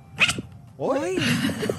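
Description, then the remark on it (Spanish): A female cat lets out a short, dog-like bark, one strained, rising-and-falling yowl, preceded by a quick sharp burst and followed by rustling noise. “Es una gatita y ladra como perro, amigos.”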